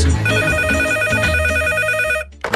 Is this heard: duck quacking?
no